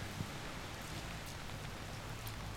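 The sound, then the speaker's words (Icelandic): Steady, dense rainfall pours down in Reykjavík in a continuous hiss, with scattered drops pattering on a hard surface and a low rumble underneath. No voices. “það fór að rigna í Reykjavík. Það er bara eins og held sígur fötu.”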